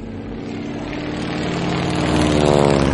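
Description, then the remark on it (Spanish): A Ford trimotor propeller airplane, the 'Tin Goose', flies overhead, its engines droning steadily, a rich low hum layered with buzzing harmonics that slowly grows louder over the few seconds, with no voices present. “Ahí va, en el aire, lo veis, es el vuelo de los tingus, el ganso de ojalata. Se trata de un avión trimotor de la marca Ford, del que se fabricaron 200 unidades.”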